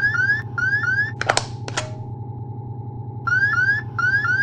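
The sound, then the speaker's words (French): A lunar module computer program alarm 1202 tone sounds during the LEM's descent toward the Moon, as a repeating series of rising electronic chirps, cut off briefly by a couple of sharp clicks before resuming, all over a steady low mechanical hum. “Houston, que signifie l'alarme programme 1202 Compris, c'est bon, feu vert, avec cette alarme.”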